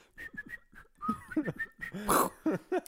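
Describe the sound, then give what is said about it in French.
Someone tries to imitate a whistling firework rocket with their voice: thin, wavering whistled tones mixed with breathy vocal bursts and a short hissing blast, moderately loud. “J'arrive pas à faire les, les, fusées sifflantes là, tu vois.”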